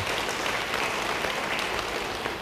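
An audience claps steadily in applause for a person, a dense, continuous wash of many hands for a couple of seconds, with no voices standing out.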